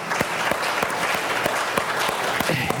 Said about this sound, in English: Can we give him a hand clap of praise for the victory he provides?